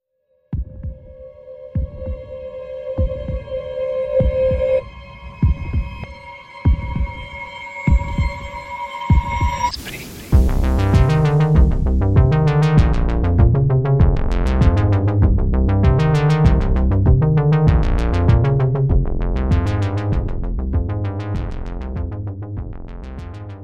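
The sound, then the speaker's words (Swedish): A musical jingle opens with deep, steady heartbeat-like thumps under held synth tones, then bursts into a full, driving beat with layered music that runs loud and steady to the end, with no voices. “Ska vi dra igång en jingel nu då?”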